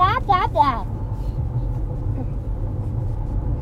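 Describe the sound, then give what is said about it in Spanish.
A voice imitates a chicken with three quick, harsh clucks that sound like a bus horn, then gives way to a steady low rumble for the rest of the moment. “Esa es la gallina más horrible que he escuchado en mi vida.”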